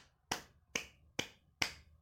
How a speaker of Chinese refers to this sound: 诶，我刚刚那是在拍手，不是在打炮哦。